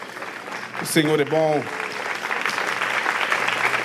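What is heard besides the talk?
audience applause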